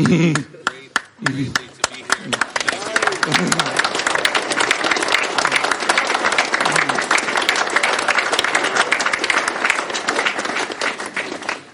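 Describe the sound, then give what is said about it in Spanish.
A crowd breaks into sustained applause for the Israeli CLI group, dense overlapping claps for over ten seconds, with a few voices audible at the very start before the clapping takes over. “Eu queria que os amigos eh, batessem palmas para o CLI israelita.”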